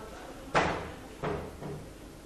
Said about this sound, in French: Si vous pouvez fermer la porte là-bas, c'est sympa.